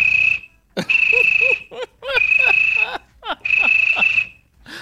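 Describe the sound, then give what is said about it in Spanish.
A cricket chirps in three long, steady high-pitched trills with short pauses between them, fairly loud, while lower warbling, croaky calls bubble up underneath. “Ese grillo es mundial. Ese grillo es la bomba.”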